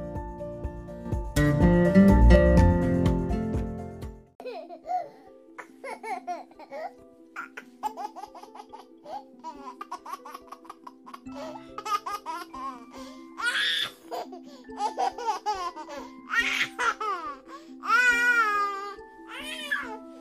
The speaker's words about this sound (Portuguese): Nosso episódio está começando muito meigo, muito doce, um verdadeiro guti-guti com essa risadinha de bebê. Quem não fica admirado com um bebezinho?